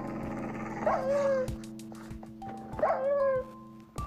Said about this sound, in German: So, das sind wieder diese brennenden Wölfe.